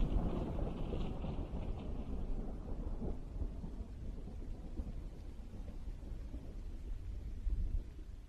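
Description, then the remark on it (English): Low, continuous rumbling of distant thunder from the east rolls on steadily under a dark sky with no rain, a deep broad roar without sharp cracks, sounding far off and muffled, with no voices present. “I can I can hear faint thunder from far away.”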